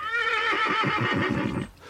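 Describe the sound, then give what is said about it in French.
A horse whinnies loudly, a long quavering neigh with a rapid pulsing tremble that rises then fades out near the end. Researchers play it through a loudspeaker behind a partition in an experiment with a group of horses. No voices are present. “Juste après que le cheval a disparu derrière la cloison, les chercheurs font diffuser par le haut-parleur soit un hennissement émis par le cheval qui vient de passer, soit un hennissement émis par un autre des chevaux du groupe.”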